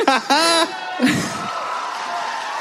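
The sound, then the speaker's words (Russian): A loud, high-pitched shout rings out, followed by a brief lower yell, then a steady wash of crowd noise with cheering and voices continuing underneath. “кто, кто кричал”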